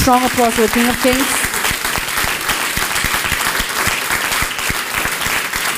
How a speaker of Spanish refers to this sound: ¿Será alguien que le pueda dar un fuerte aplauso al Rey de Reyes?